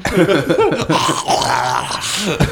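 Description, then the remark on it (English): A voice imitates a dog growling, loud, with wavering, rising and falling snarls running continuously for a couple of seconds. “you want the dog? Here he is.”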